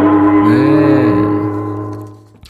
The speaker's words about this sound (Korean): 한 번 더요. 징소리. 네.